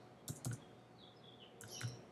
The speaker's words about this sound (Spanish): en este caso le voy a poner crear documento en un modo RGB en un tamaño 800 por 600 o bien se puede dar el tamaño eh, cambiando el valor directamente con el teclado 800